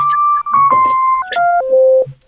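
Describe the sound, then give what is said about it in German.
A calendar reminder alert plays: a short electronic melody of clear, stepped tones falling in pitch, loud, lasting about two seconds with no voices over it. “Das ist mein, das ist mein Termin ist das.”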